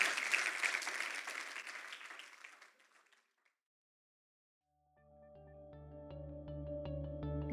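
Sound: audience applauding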